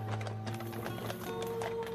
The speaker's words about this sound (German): Lothar ritt mit weiteren Soldaten auf Pferden nebenher.